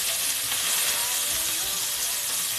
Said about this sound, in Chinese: 对不起，下锅的声音太刺激了。